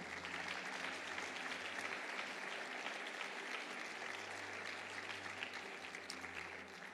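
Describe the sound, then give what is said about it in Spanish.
A church audience applauds the Lord loudly and steadily, a dense wash of many hands clapping at once that fills the whole stretch without pause, with no voices standing out. “Y sabes, puedes dar un aplauso fuerte al Señor.”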